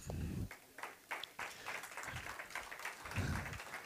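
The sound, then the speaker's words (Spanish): An audience breaks into applause, a dense, steady wash of many hands clapping that holds for several seconds, with a few low voices calling out beneath it. “Ahora sí puede aplaudir.”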